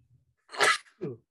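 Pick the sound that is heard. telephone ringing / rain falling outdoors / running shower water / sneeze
sneeze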